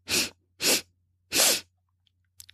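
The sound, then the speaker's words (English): Three quick, sharp sniffs through the nose in a steady rhythm as part of a breathing exercise, fairly loud, with a faint low hum underneath and no talking. “Ready? Three quick sniffs”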